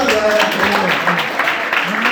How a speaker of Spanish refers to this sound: Un aplauso, chicas.